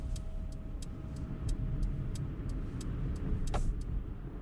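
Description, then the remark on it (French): A car's engine starts and the car pulls onto the road: a steady low engine rumble heard from inside as it drives, with a regular light ticking like a turn signal clicking about twice a second. “Le moteur démarre et la voiture s'engage sur la route.”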